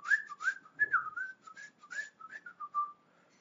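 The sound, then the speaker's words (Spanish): A man whistles a short, wandering melody of quick rising and falling notes as he arrives, clear, with no talking over it. “llegaba llegaba este señor, ¿no? Chiflando, ¿no?”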